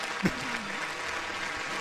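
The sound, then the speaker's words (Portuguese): A brief burst of steady applause fills the moment, dense and continuous, with a voice briefly audible underneath; the applause is given as a salute to McDonald's. “salva de palmas pro McDonald's.”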